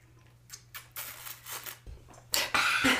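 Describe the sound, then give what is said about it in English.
A drink bottle of water is handled and opened to drink from: scattered crinkles and small clicks, then a louder, sustained plastic crackle and twist near the end, over a faint steady hum. “Let me open this. So I drink some water. Make all the noises.”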